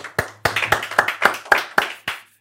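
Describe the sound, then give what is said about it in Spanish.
A short burst of hand clapping to welcome a guest on a show, about ten sharp claps at an uneven quick pace from a few people, fairly loud, ending abruptly with no talking. “Un aplauso,”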